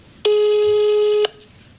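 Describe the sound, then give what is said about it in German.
A single steady telephone tone rings out for about one second as a call is placed, loud, a flat harmonic beep that starts and stops abruptly against quiet background hiss. “Ruft hier gleich jemand an?”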